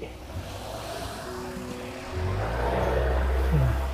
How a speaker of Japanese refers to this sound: はい、今もね、車来て、車と自転車がちょうど来たりとかしてますけれども